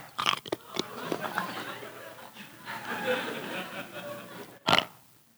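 Hard candy being bitten and chewed, with sharp crunchy cracks near the start, grinding mouth noises in between, and one loud crunch near the end. No words are spoken.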